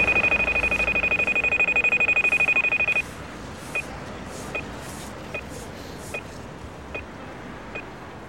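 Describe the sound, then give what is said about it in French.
A pedestrian crossing signal beeps: a rapid, continuous run of high-pitched ticks for about three seconds, then it slows to soft, evenly spaced single beeps over a low background hum. No one speaks. “Instinctivement, j'aurais dit que le c'était attention, ne traversez pas. Et apparemment, c'est pas ça. Quand c'est voilà, ça, on peut traverser.”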